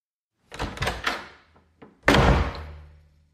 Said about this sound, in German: es waren ähm, die klappernden Türen oder zuschlagenden Türen. Du kriegst zwei Türen jetzt nacheinander zu hören und du sagst mir, welches Geräusch du schon mal gehört hast.